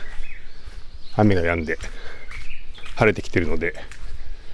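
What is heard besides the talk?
japanese bush warbler singing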